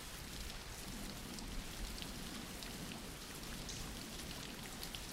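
Steady, dense rain falling continuously, a broad hiss with scattered drops pattering on surfaces throughout, moderately loud and unbroken, with no voices.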